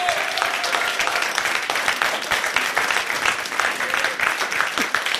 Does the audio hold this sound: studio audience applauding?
yes